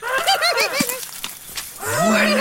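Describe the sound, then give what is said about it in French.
A small prehistoric animal, a close cousin of the horse, whinnies as it comes out of a large clump of ferns in a hot, humid, nearly tropical marsh near Messel, Germany: a shrill, quavering neigh, then a brief pause and a second rising, drawn-out whinny. No one speaks. “À part le hennissement, cette bestiole n'a pas vraiment l'air d'un cheval.”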